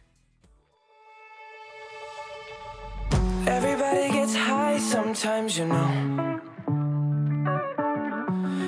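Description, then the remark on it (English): A pop song plays with a sung vocal over a soft synth intro, then a heavy bass drop around three seconds brings in a full, loud electronic beat with layered vocals. “And this is why we chose to play the next song,”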